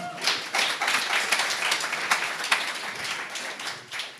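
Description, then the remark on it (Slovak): A church audience applauds steadily, a dense patter of many hands clapping at once that holds for a few seconds at moderate loudness, with no voices. “A neviem, že či ste vy zatleskali, ale to si zaslúžilo potlesk.”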